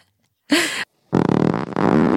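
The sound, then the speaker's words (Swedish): Two loud fart noises: a short sputtering burst, a brief pause, then a longer, rumbling, flapping one that carries on to the end. “Varför pruttar du farbror?”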